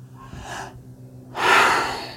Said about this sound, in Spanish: Y luego tomas una respiración profunda